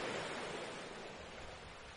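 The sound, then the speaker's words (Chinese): Ocean waves wash onto a sandy beach in a steady, hissing rush of surf, soft and even in loudness, with no voices over it. “沙滩上，海浪一下一下的拍打过来。带着大海的味道，淡淡的、潮湿的、”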